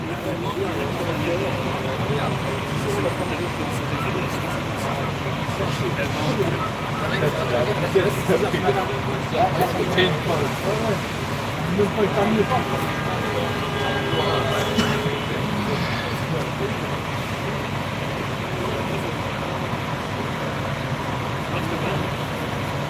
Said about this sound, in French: en tout cas, il y a le camion poubelle déjà qui vient les chercher, tu vois.